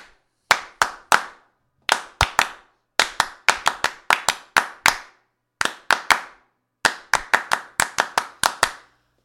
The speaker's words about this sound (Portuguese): Tocamos com palmas aqui o início da música que a gente vai falar.